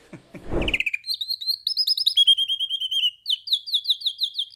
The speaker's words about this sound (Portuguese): e a nível internacional, né, os nossos canários aqui olha, não deixa nada a desejar para nenhum, nenhuma outra ave.